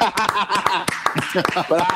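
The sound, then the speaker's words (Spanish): Hands clap in a quick, uneven string of sharp slaps, mixed with voices talking and light laughter the whole time. “Mis manos aplauden sin que yo quiera.”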